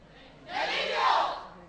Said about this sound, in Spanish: A mí es que eso me, da, eso me da miedo, el grito de guerra que va a tener a continuación. A ver si podemos escucharlo.